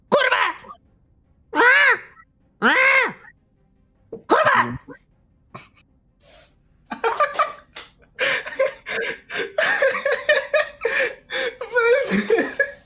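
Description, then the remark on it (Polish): Four loud, harsh squawks from a parrot perched on a man's shoulder ring out, evenly spaced, followed after a short pause by a stretch of busy talking. “Widzicie, że na jego ramieniu usiadła papuga.”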